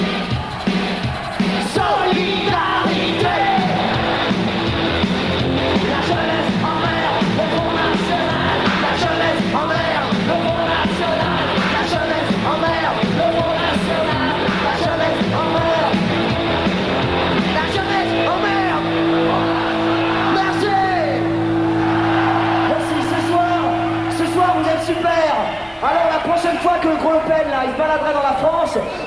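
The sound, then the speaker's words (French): A large crowd shouts and yells continuously at full volume, a dense roar of many voices with steady low droning tones running underneath throughout. “Je veux vous voir gueuler comme ce soir, ok”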